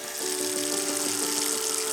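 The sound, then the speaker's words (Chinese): Cold tap water runs from a kitchen faucet in a steady, even hiss for about two seconds, rinsing a burned hand, with a faint low hum beneath the rushing stream and no voices. “水獭妈咪听到了从厨房里传来的哀嚎声，赶紧跑进厨房，抱起了不停哭泣的水獭哥哥，到水龙头下方冲冷水。”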